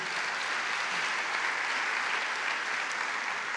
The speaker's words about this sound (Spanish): Si vas a aplaudir, apláudele al Señor, sí.